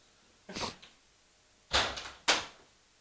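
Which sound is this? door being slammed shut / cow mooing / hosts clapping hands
door being slammed shut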